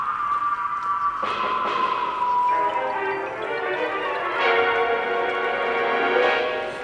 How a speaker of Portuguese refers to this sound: Ai, desculpa, gente, meu celular.